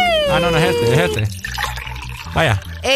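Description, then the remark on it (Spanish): Water pours into a small glass with a gurgling, shifting tone over the first second, while people talk briefly over it and after. “Tomen ese vasito de agua, hombre.”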